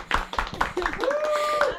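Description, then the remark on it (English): Scattered claps from a small group after a French worship song, several sharp hits at an uneven rhythm, moderately loud, with a voice calling out in a rising, drawn-out tone over the second half. “We can clap in him.”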